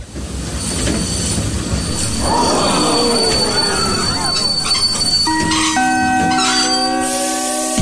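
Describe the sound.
A train brakes hard after its new emergency brake has just been pulled, its wheels letting out a loud, wavering metallic squeal over a heavy rumble, then settling into sustained high tones; a single short voice exclamation is heard.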